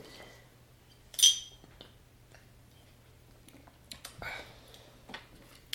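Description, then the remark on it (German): Glasses clink together once in a toast, a bright ringing tap that fades quickly, followed by soft rustling and a few small clatters against a low steady hum. “Prost, Prost.”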